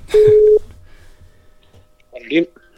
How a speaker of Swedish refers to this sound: Nu ringer vi till... Veckans gäst. Veckans gäst. Se om han svarar. Kanske inte har tid.